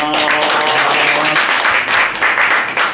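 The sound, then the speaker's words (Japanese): A burst of dense, steady applause from a crowd, many hands clapping at once and filling the whole stretch at a loud, even level. “大きな拍手をお願いします。”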